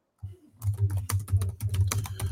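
household object, computer keyboard typing

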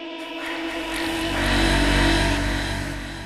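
vehicle, taxi car driving off

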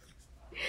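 human body sound, sneeze

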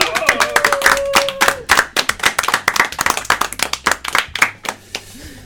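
crowd, applause and clapping

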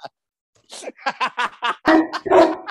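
animal, dog barking

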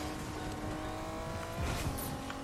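vehicle, video game car driving

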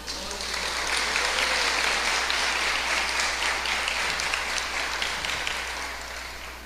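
crowd, audience applauding

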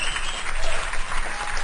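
crowd, applause

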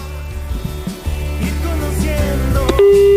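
signal or alarm, telephone busy tone

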